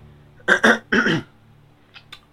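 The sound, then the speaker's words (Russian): A gruff throat-clearing cough: two or three quick rough bursts in about a second, followed by near quiet with a couple of faint small clicks. “Мерлин кашлянул, призывая свой самый страшный голос”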